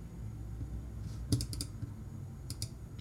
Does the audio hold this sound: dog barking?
no